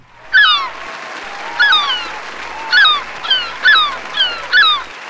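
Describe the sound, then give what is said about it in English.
A series of about seven shrill, nasal seagull squawks in quick succession, loud, with a faint hiss of wind or surf behind them and no talking. “we're going to take it to the beach as we celebrate today with seven squawks of the seagulls.”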